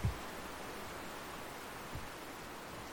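Soft, steady outdoor ambience on Mount Gosford, a mountain in southeast Quebec, recorded while hiking, with a constant airy hiss like wind or running water through trees, broken by two faint low thumps near the start and middle. No voices.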